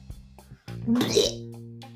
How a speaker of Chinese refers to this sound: 哦，好奇怪的声音，这才发现这根本不是什么声音，是独角兽在放屁